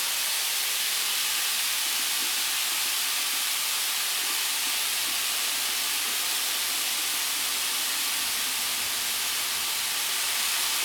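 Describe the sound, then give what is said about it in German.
Portions of meat sear in a hot pan with a steady, dense sizzle, a constant bright hiss that holds evenly for about eleven seconds, with no one speaking. “Ich mache mal eine kleine Pause, weil das Anbraten hier noch ein bisschen dauert und ich habe so das Gefühl, sonst wird das hier alles zu lange.”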